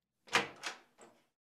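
A door opens with a short creak and scrape, then a quieter follow-up rustle that dies away into silence. No one speaks.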